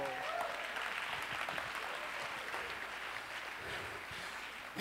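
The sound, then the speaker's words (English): A crowd claps their hands to the Lord, steadily for several seconds, many hands clapping together in a dense, continuous patter, with a few faint voices mixed in. “Clap your hands to the”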